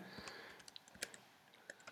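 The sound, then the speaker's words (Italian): Soft, irregular clicks of someone typing a song title into a YouTube search field on a computer keyboard, a handful of quick keystrokes spaced unevenly over a quiet background, with no voices. “Questa volta andrò a digitare il titolo di una canzone, sempre.”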